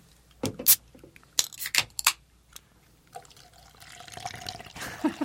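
A can of High C Ecto Cooler cracks open with a sharp metallic pop and fizzy hiss, followed by a few light clicks, then the green drink pours out in a steady, bubbling stream for a couple of seconds.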